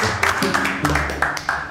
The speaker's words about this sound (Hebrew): כפיים לאנטון!